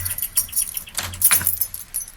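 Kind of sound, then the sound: household object, keys jangling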